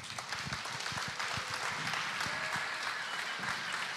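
A church audience stands and breaks into steady, sustained applause welcoming a pastor, dense overlapping claps at an even loudness for several seconds without any talking.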